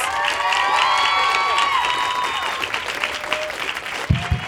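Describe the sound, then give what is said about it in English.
A crowd at an Apple Store applauds steadily with dense clapping as Grace Helbig, Mamrie Hart, and Hannah Hart are brought out, while high-pitched cheers and whoops ring out over it, easing slightly toward the end. “Big round of applause.”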